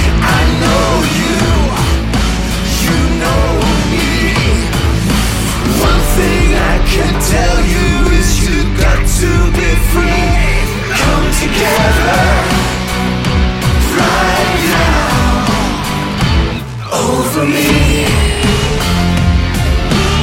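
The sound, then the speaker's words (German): A recorded rock song plays loud and continuous for about twenty seconds, with a full band of drums, bass and guitars under a singing voice, and a brief dip near the end. “Hören wir nochmal 20 Sekunden yes. ….”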